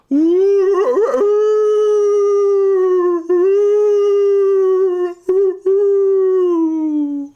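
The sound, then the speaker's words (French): A wolf pack howls in a loud, drawn-out chorus, opening with a quavering rise and then holding one long steady note, broken only by two brief pauses before trailing off. “l'entendez, la meute, là”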